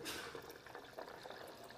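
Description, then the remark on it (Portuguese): Boiling water pours steadily over dry, unsoaked cashew nuts in a container, a continuous splashing and gurgling stream that starts strongly and carries on through the short moment without any talking. “Olha, eu coloco a castanha aqui, ela não está de molho, está sequinha. Estou usando água quente, água fervendo.”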